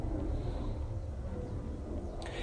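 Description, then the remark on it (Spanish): A steady, deep rumble of an airplane passing overhead during a prayer before the Eucharist fills the whole stretch, loud and continuous with a broad roaring hiss on top and no voices. “Lo siento por el avión, pero bueno, ya es familiar.”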